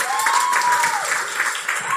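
An audience claps steadily, a dense, even patter of many hands that holds at a constant level for the full two seconds, with a thin whistling tone gliding up and down beneath it.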